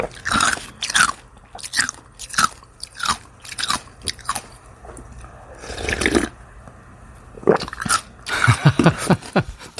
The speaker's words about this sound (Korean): 아, 입에 침 고이네요. 누가 냉면 먹나 두리번거리셨죠. 헷갈릴 수도 있겠지만 물 비빔냉면 먹는 소리 맞습니다. 이 살얼음 육수 씹어 먹는 소리도 나고요. 그렇죠?